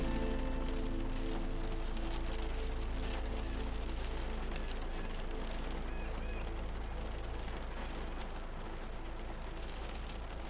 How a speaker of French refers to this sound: Concentrez-vous sur le bruit de la pluie. Ce murmure régulier qui semble créer une bulle protectrice.